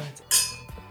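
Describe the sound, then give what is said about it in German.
Two glasses clink together once in a toast, bright, leaving a short ringing tone that fades within about half a second. No one speaks. “So, jetzt müssen wir aber mal kurz anstoßen.”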